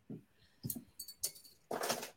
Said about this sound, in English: Well, I am going to open it with the Toon Review bottle opener. Uh, just plug it there and let's just see how well it opens the bottle. Oh, magnificently.